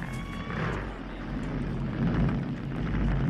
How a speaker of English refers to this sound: And then you hear motorcycle coming. And here you are, the motorcycle stops where it shouldn't stop.